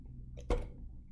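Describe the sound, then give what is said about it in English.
A water bottle is slammed down once onto a hard surface, a single sharp thud with a brief ring, heard over a low steady background hum with no talking. “Stop slamming the water bottle down.”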